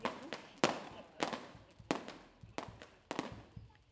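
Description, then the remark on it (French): Fireworks on 14 July in a village burst in a rapid, irregular series of about seven sharp bangs, each trailing off in a brief crackling echo, with no voices. “On part de la mairie avec tous les habitants du village, on a des bougies dans les lanternes et on va tous aller voir ensemble euh, les feux d'artifice.”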